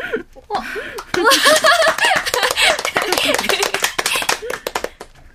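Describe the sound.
Applause breaks out after a brief moment, a dense, steady patter of many hands clapping for several seconds, mixed with voices and laughter before it tapers off.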